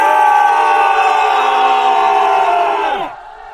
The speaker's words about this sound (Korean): 그렇게 외치니 성 안에 있는 사람들 역시 크게 외치면서 서로 호응하였다.